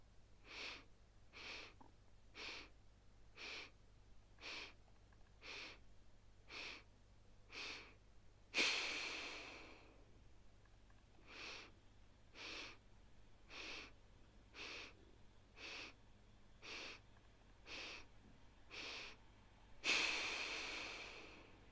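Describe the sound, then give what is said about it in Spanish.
Breathing exercise: eight short, rhythmic, equal sniffs inhaling through the nose, then one strong, noisy exhale through the nose, with the whole pattern repeated twice. No one speaks. “inhalando de forma fraccionada a través de la nariz en ocho golpes”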